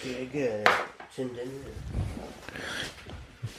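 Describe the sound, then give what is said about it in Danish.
A single sharp click of a coffee machine being switched off while people talk over it, followed by faint clattering. “Nå, det er kaffemaskinen, du slukker for der.”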